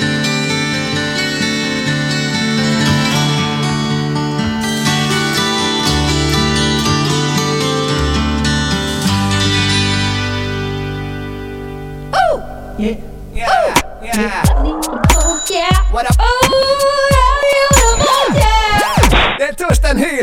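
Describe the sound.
A pop-folk song with a male vocal and steady sustained chords plays for about twelve seconds, fades into a lingering final chord, and then a man starts talking.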